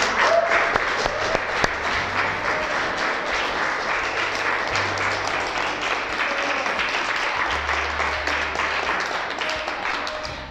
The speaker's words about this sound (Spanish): Si quieres, sí, aplaude al Señor. Sí, si quiere sí.